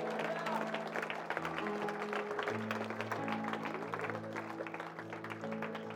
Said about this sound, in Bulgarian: Може ли да ги аплодираме, докато излизат? Нека ръкопляскаме на Бога за всички тия хора. Може ли да ръкопляскаме на Бога заедно?